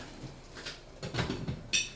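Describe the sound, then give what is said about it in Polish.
Metal clinks and scrapes of kitchenware, ending in a sharper ringing clank as a lid is placed over a pasta sauce cooking in a pan, fairly quiet, with no talking. “Przykryję całość pokrywką i przejdę do przygotowywania wody na makaron i krojenia oliwek.”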